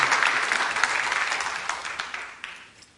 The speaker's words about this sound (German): Gebt ihnen doch mal auch einen Applaus und auch Jesus. Amen.